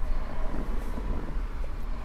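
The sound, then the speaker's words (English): A steady, low rumble of traffic fills the whole stretch, cars going by outside with no clear individual pass-bys and no voices. “there's a lot of cars going by right now.”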